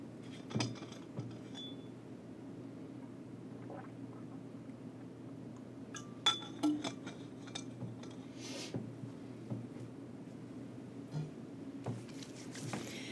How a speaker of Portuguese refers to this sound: Beber uma água.